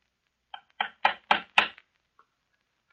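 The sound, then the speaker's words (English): Mario, a fisher boy from the village, knocks on the door of His Excellency the Governor: five firm raps in a quick, steady run, fairly loud, followed by quiet with one faint tap near the end. No one speaks. “Someone's at the door, Rosa. See who it is.”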